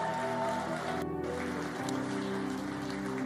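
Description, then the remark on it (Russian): A crowd applauds steadily, a dense, continuous crackle of many hands clapping that stays loud for the full few seconds, with a low sustained hum of music underneath. “Да, и огромные, огромные, огромные, огромные аплодисменты.”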